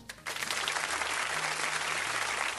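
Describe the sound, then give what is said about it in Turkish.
Dense, sustained clapping from a crowd, applause for Elon Musk, starts abruptly after a brief pause and continues steadily at a strong level, with a faint low hum underneath and no voices. “Alkışlarla Elon Musk.”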